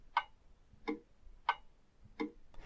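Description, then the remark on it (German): A wall clock ticks steadily, four crisp alternating tick-tock beats spaced about two-thirds of a second apart, fairly soft, with no one speaking. “Ist das vielleicht meine Wanduhr?”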